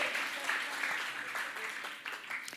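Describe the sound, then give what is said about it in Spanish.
A large audience claps together in a dense, continuous wash of applause, steady and moderately loud throughout, with individual claps blurring into a crackling roar. “Creo un aplauso para usted mismo. Un aplauso.”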